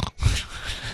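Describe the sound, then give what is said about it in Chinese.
A person imitates the snoring of a passenger sleeping next to the driver on a long-distance drive: a rough, breathy snort, a short gap, then a longer rasping inhale that rumbles low and hisses across the top, fairly loud and without any speech. “下面一个就是说，我们在开长途行驶过程当中啊，就是旁边一人， 然后不会开车，上来就呼呼大睡， 嗯 还打着呼噜。”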